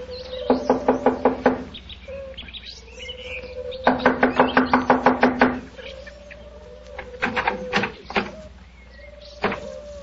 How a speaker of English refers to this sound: Here we are. I'll knock on the door.